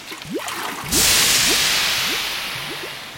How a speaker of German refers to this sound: Danach hebt sie mit einer magischen Handbewegung die Vase in die Luft, lässt sie hinüber zum Höhleneingang schweben und Wasser in die Höhle hineinfließen. Schwall um Schwall strömt aus der Vase bis die Höhle voll ist.